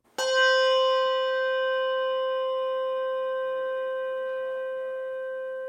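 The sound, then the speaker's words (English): A single Malmark handbell with its tang cut off is struck once with a bright, sudden onset, then rings on with a clear, steady tone that decays very slowly, sustaining throughout with no voices present. “And this is a Malmark bell, Jake's new bell, with the tang cut off.”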